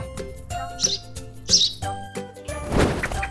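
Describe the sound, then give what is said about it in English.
A baby bird held in a child's palm gives two short, high chirps about a second apart over a steady tonal background, followed by a brief burst of rustling, fluttering noise near the end as it takes flight. “she takes flight into the open sky, free to roam, free to soar, free to fly, relatively loogie free.”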